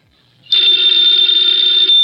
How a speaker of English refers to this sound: Ladies and gentlemen, the ringing of that phone bell brings you mystery, adventure.